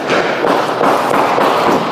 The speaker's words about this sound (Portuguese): O que se percebe é que há tiros, só que esses tiros estão distantes dele.